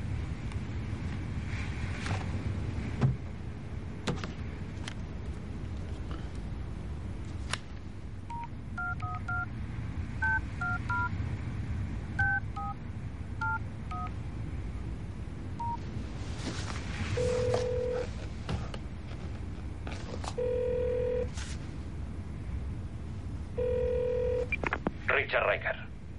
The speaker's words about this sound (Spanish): A continuación agarra su móvil y gira la imagen para marcar el número de teléfono.